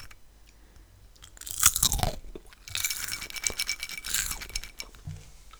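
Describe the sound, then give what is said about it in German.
Crunchy chewing on caramel popcorn and salted pretzels, a loud crisp bite followed by a run of irregular crackling crunches, with nobody speaking. “Hatten wir Karamell-Popcorn mit salzigen Brezeln.”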